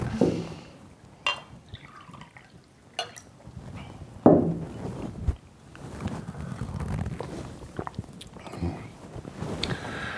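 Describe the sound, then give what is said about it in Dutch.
Water is poured into a glass, a gurgling trickle with a few sharp clinks and small splashes, rising and falling over several seconds with no one speaking. “Neem nog een, eh, wat water.”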